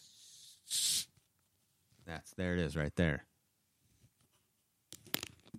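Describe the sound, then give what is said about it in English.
A can of Dream-flavored Coca-Cola cracks open with a short, sharp fizzing hiss, followed by someone talking briefly, then another burst of carbonated fizz near the end. “That's the sound of it opening.”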